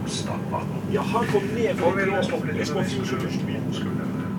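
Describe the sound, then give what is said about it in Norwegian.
Steady low rumble inside the cabin of a moving train headed to Bø fills the background throughout, with a voice speaking over the continuous droning noise. “Jeg sitter på toget til Bø.”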